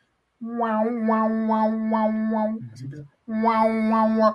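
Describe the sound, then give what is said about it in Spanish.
A voice imitates how an earthquake sounds in Mexico City, with a loud, sustained nasal drone that wavers in a steady rhythmic pattern, breaks off briefly with a low grumble, then starts the droning again. “Si yo empiezo a escuchar afuera de la, para, que no vivan en la Ciudad de México, el terremoto suena más o menos.”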